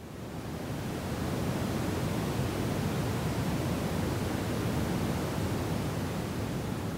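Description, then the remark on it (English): A steady, deep brown noise (also called red noise) plays alone: white noise stripped of more high frequencies than pink, a continuous low rumbling hiss heavy in bass with softened highs, fading in briefly then holding constant and fairly loud throughout. “It's essentially white noise that has been stripped of even more higher frequencies than pink. It has more bass notes.”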